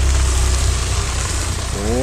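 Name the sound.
car driving past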